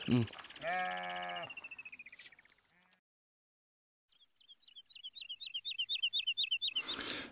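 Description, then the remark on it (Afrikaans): A sheep lets out a loud, wavering bleat lasting a couple of seconds. After a short silence, a rapid run of high, bird-like chirps follows. “My magtig man kan die verdomde ding nie ophou skrou nie.”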